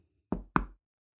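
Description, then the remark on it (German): Two soft knocks of a hand gently on a shabby, run-down door, evenly spaced, each a short muffled thud with a quick decay, followed by silence. “Ihre Hand hebt sich und klopft zart an die Tür.”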